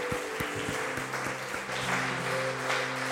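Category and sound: crowd, audience applause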